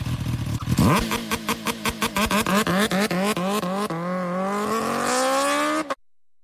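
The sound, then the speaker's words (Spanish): A motorcycle engine cranks and fires, then revs upward through rising pitch with rapid gear-like pulses, climbing steadily louder before cutting off abruptly; no one speaks. “Es momento de ponerse el casco, chamarra y guantes. Estamos en válvulas flameadas. Arrancamos.”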